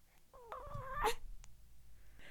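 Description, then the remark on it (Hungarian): Shrill, wavering squeals from a newborn creature, fairly loud, climbing into a harsh screechy burst after about a second, then a brief faint chirp and quiet rustling. No one speaks. “Hát ezek ilyen baba raptor hangok.”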